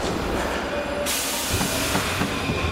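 metro train running

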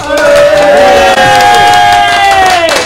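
applause and cheering

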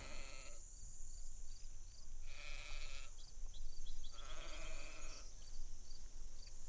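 sheep bleating

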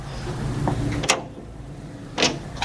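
door handle turned

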